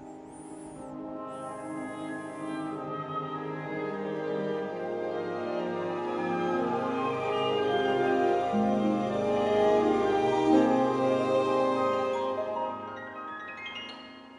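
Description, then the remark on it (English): An orchestral alarm clock melody, heard in the morning, plays alone: sustained string tones swell steadily into a fuller, brassy crescendo as brass and woodwinds join, then ease off near the end with harp and piano on the highest range. “So, this is the sound of my alarm clock actually in the morning.”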